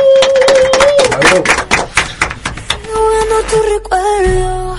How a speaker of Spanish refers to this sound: Son los chicos del CESE, del Centro de Estudiantes de Ciencias Económicas, nos acompañan hoy, así que quiero pedir un fuerte aplauso, por favor.